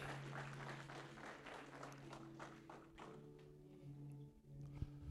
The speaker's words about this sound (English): Amen. Give God a nice round of applause. Thank you, Jesus.